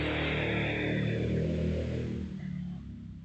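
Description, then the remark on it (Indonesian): A loud engine drones steadily with a rough, throaty rumble, then eases off and fades slightly toward the end, like a motorbike passing outside. “jadi sekolah ini suara motor”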